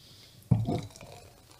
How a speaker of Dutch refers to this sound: ik schenk hier even met een ontzettend veel souplesse deze bubbel in